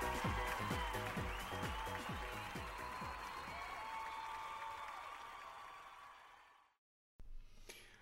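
A crowd applauds loudly and steadily, with cheering voices mixed in, for several seconds before the clapping fades away; after a short silence, a brief new sound begins.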